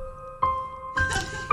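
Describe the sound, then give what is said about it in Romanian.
A short, melancholic sound effect: steady sustained tones under three soft, squishy swells that rise and fade in turn, with no voices present. “Este să spirit melancolic mai mult. Păi da, da, e tristețea aia din dragoste.”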